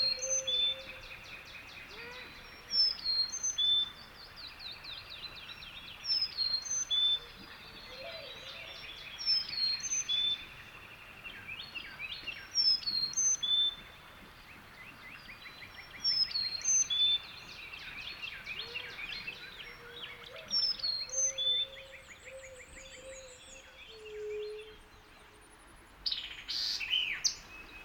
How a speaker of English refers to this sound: Moving closer to the river, I come across a Carolina chickadee sounding off near the top of a small tree. Phoebe, Phoebe, he seems to say. Listen also for the coos of a mourning dove and the distant rapid trills of a black crested titmouse.